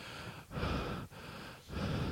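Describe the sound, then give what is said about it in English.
Heavy, creepy breathing right up against the microphone: loud, rasping breaths drawn in and pushed out in a slow rhythm, about four in a row, with brief pauses between them and no talking. “Get that creepy breathing thing going on.”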